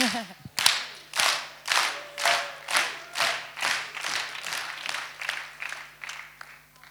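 A group claps together in a steady rhythm, about two sharp claps per second, roughly a dozen in a row, loud at first and softening slightly toward the end.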